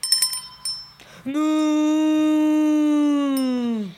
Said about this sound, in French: meugle-t-elle.